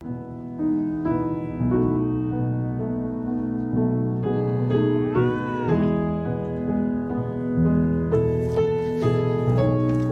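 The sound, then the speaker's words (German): In a documentary film scene, a cat trying to nibble from a plate meows in drawn-out, rising and falling cries while a pianist plays continuous loud fortissimo piano to drive it away, with a cluster of sharper notes and higher sounds near the end. No one speaks. “Die Katze will von einem Teller naschen und der Pianist versucht das Büsi zunächst Piano und damit viel Fortissimo zu vertreiben.”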